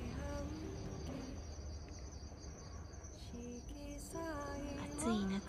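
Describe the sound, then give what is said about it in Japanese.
Autumn crickets chirp in a steady, continuous high trill outdoors around the autumn equinox, filling the whole stretch at a moderate level, with a faint voice briefly murmuring underneath near the end. “え虫の声も聞こえるでしょうか”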